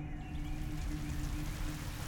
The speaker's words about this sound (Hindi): और जोरों से बारिश होने लगी